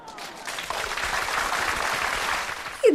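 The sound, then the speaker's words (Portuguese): A round of applause for a young listener who gave the right riddle answer, 'sieve' (peneira): many hands clapping in a dense, steady patter that swells quickly and holds at a moderate level for a couple of seconds before a brief voice cuts in at the end. “Palmas para ela!”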